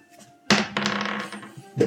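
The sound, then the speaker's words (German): Dice are rolled in a game, clattering onto a hard surface with a sudden rattling burst, then tumbling and ticking for about a second before settling, with one more brief knock at the end. Fairly loud, no voices. “Also ich muss unter 12 würfeln.”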